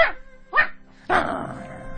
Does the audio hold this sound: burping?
no